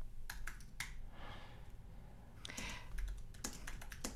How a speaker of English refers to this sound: Do you eh, hear me typing? You can hear, I do.